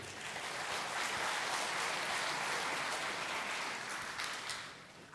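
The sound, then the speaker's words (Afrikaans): An audience claps steadily for about five seconds, applauding a man at the speaker's request. It is a dense, even patter of many hands that holds at full strength and eases off slightly at the end. No one speaks. “Geef hom 'n lekker hande klap toe.”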